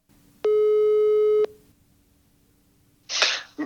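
A single steady telephone ringback tone sounds for about a second, loud and clear, while calling a Euronav analyst, followed by quiet and then a short burst of crackly noise as the line seems to connect.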